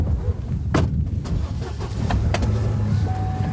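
A pickup truck drives along Kelsey Boulevard, the paved main street of Churchill, on a clear spring day at about minus 3 degrees. Its engine is a low continuous rumble with scattered clicks and brief rattles from the cab, plus a faint whining tone near the end.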